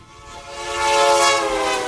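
A train horn blares in a steady, harmonic chord that swells louder over about two seconds, with the broad rumble of a passing train underneath and no voices.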